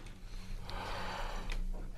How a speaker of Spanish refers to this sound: Siga respirando, …. Jalando el aire.